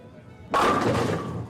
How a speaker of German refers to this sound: Kugel, bist aus Holz und Rund. Lauf wie ein Hund auf der Bahn, stoß alle Kegel an und saß dahin.